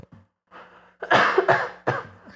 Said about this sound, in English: you done? You done coughing, you little, Done? you little slut? You want to sneeze too? Go ahead and sneeze. You got to fart and sneeze too?